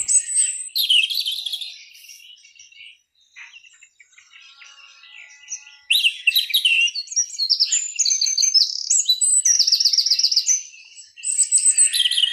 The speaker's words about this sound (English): bird song. What a great animal the bird is. The cat chases it. The dog is puzzled by it. We are perplexed by their sheer beauty and majesty from the smallest warbler to the largest vulture, from the craw to the chirp.